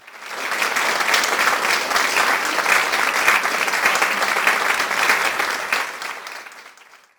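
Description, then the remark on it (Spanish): Sustained applause from a group of people for the Caribbean Queens women's volleyball team in the Volleyball Nations League. Dense steady clapping swells in quickly, holds for several seconds, then tapers off toward the end. No one speaks over it. “Un aplauso para nuestras reinas que están metidas en la crema, la crema del voleibol mundial.”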